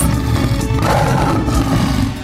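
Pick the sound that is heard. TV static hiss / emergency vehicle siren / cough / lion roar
lion roar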